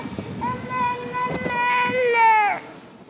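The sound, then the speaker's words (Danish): A hungry small child crying out for food lets out one long, high-pitched wailing cry lasting about two seconds, holding steady before dipping in pitch as it trails off, with faint background noise around it. “råber på mad.”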